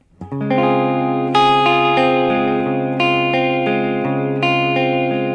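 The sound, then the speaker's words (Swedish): A sustained, electric-sounding instrument plays notes that keep ringing as delay repeats, set to continue a bit longer, stack up, building a dense, steady wash of echoes. Fresh loud attacks arrive every second or so, with no talking. “bara att den är inställd att den fortsätter lite längre.”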